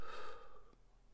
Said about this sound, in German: Bitte achten Sie jetzt auf die Atempausen. Wir atmen aus.